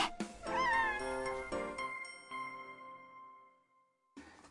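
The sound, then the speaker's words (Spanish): A cat in a cat café lets out a single drawn-out meow, fairly loud, its rising wail trailing off into a fading ringing tone, with a short burst of background noise at the end. “私はこの猫が好きです猫カフェってリラックスできるよね”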